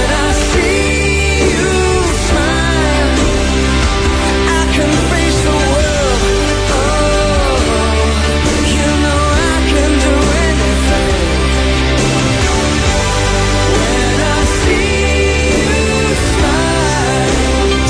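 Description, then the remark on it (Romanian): A 1980s rock ballad plays loud and steady for the whole stretch, with a sung vocal line soaring over a full band of guitars, drums and sustained keyboards. “Și mie mi-a sunat în cap weekendul ăsta o piesă care sună cam așa.”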